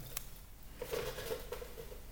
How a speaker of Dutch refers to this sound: heel langzaam druipt jouw bier eruit.